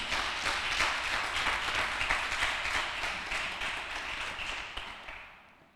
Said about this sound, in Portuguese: Dá um aplauso aí. Em nome de Jesus.